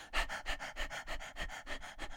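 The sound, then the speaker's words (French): A person pants rapidly like a dog as a breathing exercise to wake up the diaphragm, about a dozen quick, even in-and-out breaths, fairly loud with no talking. “On peut faire l'exercice du petit chien.”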